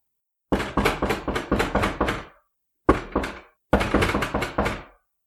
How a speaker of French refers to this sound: On heurte.